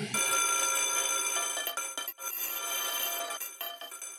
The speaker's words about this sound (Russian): Звонок прозвенел, и урок наш закончился.